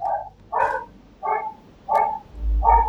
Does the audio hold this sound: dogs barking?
yes